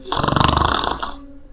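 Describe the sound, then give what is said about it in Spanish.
A single deep, rattling snore from a father asleep in his bedroom, lasting about a second, loud, with a rough guttural vibration that fades out into quiet. “Del dormitorio de sus padres salían unos ronquidos profundos de su padre”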